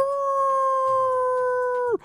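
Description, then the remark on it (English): A single long, werewolf-like howl from Wolf Boy, a circus character, after he is kicked in the groin. It is loud and holds one steady pitch for nearly two seconds before dropping off abruptly at the end. No talking. “Did you not realize when he howled like a werewolf that you kicked Wolf Boy in the nuts?”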